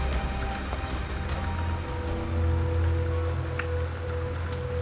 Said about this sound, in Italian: Arrivo a Scalo, San Lorenzo, e qui il tipore del sole che mi ha accompagnato fino ad ora si assopisce tra le nuvole crescenti e l'inizio di una lieve pioggerellina.